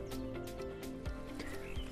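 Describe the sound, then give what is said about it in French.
Birds sing and call outdoors in a marsh shortly before 8 a.m., with several chirps and short rising whistles over a steady, soft background of ambient noise. “Euh, on entend déjà pas mal de, de bruits, de chants d'oiseaux.”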